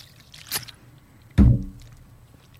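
A quiet sip from a drink: a soft click or tap, then a brief wet gulp with a short fading tail, with no one talking.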